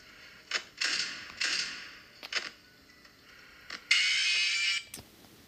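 A music box being wound up again: a series of bright, ratcheting mechanical bursts with sharp clicks between them, the last winding stretch longer and louder, without any voices.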